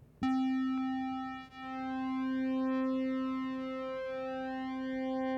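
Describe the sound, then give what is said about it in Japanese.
A sustained synth square-wave tone starts abruptly and holds one pitch, its buzzy timbre slowly thinning and shifting as the pulse width narrows, loud and steady with no voices. “まあ、4つ目のスクエアウェーブこれも、えー、この四角の幅正方形みたいな四角だったのがちょっとそれを狭めるとかっていうコントロールもできるんでそれちょっといじって音出してみます。”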